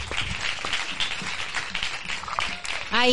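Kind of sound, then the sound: crowd, audience applause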